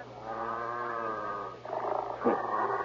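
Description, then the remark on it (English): Dogs growl and snarl in a low, steady rumble that shifts into rougher, agitated noises near the end, fairly loud, with no one speaking. “Why do you have them? Terrible dogs.”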